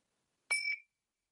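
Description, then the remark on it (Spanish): A single meditation gong is struck once as the first gong of a meditation practice, starting a few minutes of attention to the breath, giving a bright metallic ring that fades within a fraction of a second, heard alone against silence. “Primer gong, atengamos a la respiración unos minutos.”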